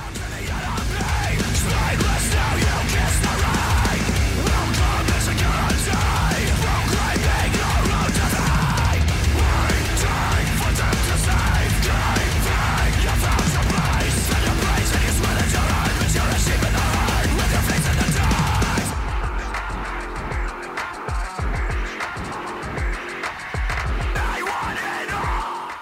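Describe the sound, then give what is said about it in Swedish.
A loud, dense song plays at full volume with a driving rhythmic pulse and a thick, distorted wall of sound; near the end the mix suddenly thins out while the beat continues. “Så Jocke, vi ska väl lyssna på en låt?”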